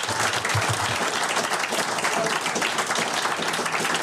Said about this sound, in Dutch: En we beginnen de uitzending met een applaus. Dankjewel.